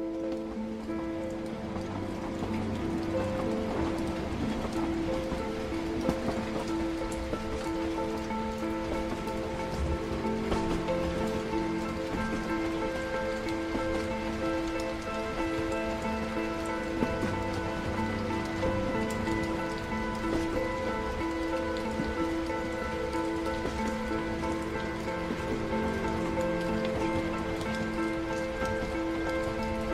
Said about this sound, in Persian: هرچی به سمت شمال میرفتیم آب و هوا هم تغییر میکرد اولش که نزدیک تهران بودیم تابستون بود بعد رفته رفته مه گرفته و خنک شد و ایستگاه آخر دیگه بارون گرفت